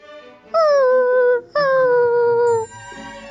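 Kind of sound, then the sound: animal, dog whimpering and howling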